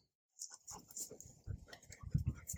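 A dog close by makes a run of restless whimpering and snuffling noises mixed with quick panting breaths, starting after a moment of silence and continuing unevenly.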